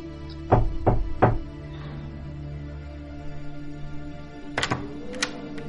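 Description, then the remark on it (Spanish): Three firm, evenly spaced knocks by a gloved hand on a wooden door, dull, followed after a pause by a quieter clunk and rustle, like the door being handled. “Levanta su enguantada mano y golpea la puerta de madera, rompiendo el silencio del viento por un momento.”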